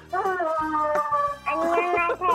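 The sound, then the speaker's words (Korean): A voice mimics a racing car in a voice impression contest, producing sustained whining engine tones that rise in pitch, with brief low rumbling bursts between revs, loud. “자, 경주차 소리 들어보겠습니다.”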